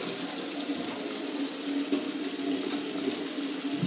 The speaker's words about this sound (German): Ich gehe jetzt zur Abwasch, zum zum Topf. Lass ein bisschen warmes Wasser laufen.